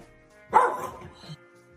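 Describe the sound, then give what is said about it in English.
A dog gives one sharp, loud bark, followed a moment later by a softer, shorter bark or grunt. Nobody speaks, and the surroundings are otherwise quiet. “Now it barks.”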